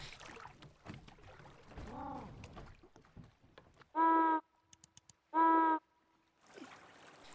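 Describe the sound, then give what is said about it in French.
A lone penguin, heard from kayaks, calls several times in a row: a warbling cry, then two loud, brassy honks in close succession, with water and wind noise around them. “qui va émettre euh, plusieurs cris d'affilée.”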